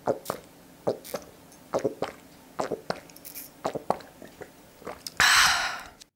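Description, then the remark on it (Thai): Someone drinking water: a steady series of soft, wet gulps about every half second, followed by a brief breathy rush of air at the end. “I think someone's drinking water or drinking something but yeah he or she is drinking”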